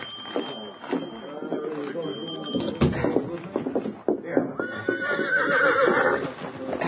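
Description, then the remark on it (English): A horse named Victor whinnies with a rising, wavering cry near the end, while hooves clop in uneven steps and voices speak over the commotion, steadying him. “This is my horse. Steady, Victor. Steady, boy.”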